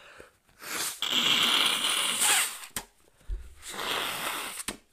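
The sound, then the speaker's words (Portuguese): Someone with a cold blows their nose twice into a tissue: two long, loud, breathy honking bursts, the first longer and harsher, separated by a short pause, with no talking. “Ai, peraí, que eu preciso assoar o nariz, que eu tô meio gripado.”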